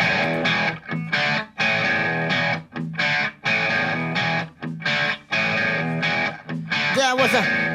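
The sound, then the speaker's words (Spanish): Loud, heavily distorted electric guitar chords pound out a driving, fast blues-rock rhythm in short choppy bursts with brief gaps, ending in a bending, wavering note. “Nos quedamos un rato en las guitarras con distorsión y ritmo de blues acelerado.”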